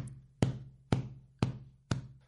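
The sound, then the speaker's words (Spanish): A cushion is struck four times in a steady, even rhythm, each hit a dull, low thump meant to stand in for a bass drum. A faint constant hum sits underneath; no one speaks. “Por ejemplo, pensé que puedo usar un almohadón para simular un bombo,”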